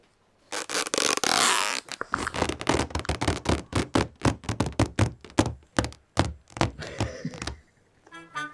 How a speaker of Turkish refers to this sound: Biz şimdi bunu bilgiyle doldurduğumuz zaman deneyeceğim bakalım 50 metre koşamıyoruz ama balon şişirebilecek miyim? Nefesin yeterse.